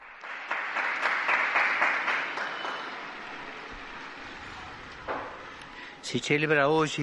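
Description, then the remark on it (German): A large crowd applauds the newly canonized Argentine saint María Antonia de San José in a dense, sustained wash of clapping that gradually thins and fades over several seconds, before a single voice starts speaking at the very end. “Einen Applaus für die neue Heilige.”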